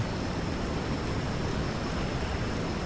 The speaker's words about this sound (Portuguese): O deslocamento de um grande volume de água produz o que chamamos de ruído branco, um som contínuo que forma uma espécie de parede sonora